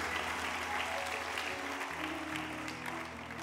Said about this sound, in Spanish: Un aplauso al Señor. Gloria a Dios.